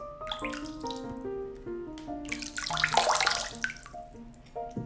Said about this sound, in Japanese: 最後はねあの人気の人気なのかなあの水滴ポチャポチャの音でさよならしようかなと思います。